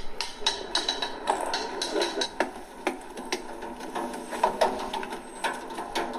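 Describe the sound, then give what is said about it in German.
Young people drum rapidly and irregularly on a truck fender, a dense clatter of sharp metallic hits with bright, clanging overtones, fairly loud and continuous with no voices. “Das ist ein LKW-Kotflügel, das sieht man natürlich jetzt hier nicht.”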